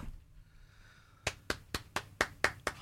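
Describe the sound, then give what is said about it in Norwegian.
Light applause: about eight crisp, evenly spaced hand claps, fairly loud, starting after a second of near-silence with a faint steady tone. “lett, app- lett applaus.”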